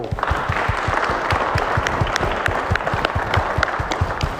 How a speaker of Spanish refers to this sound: Un aplauso a los jóvenes. Bravo.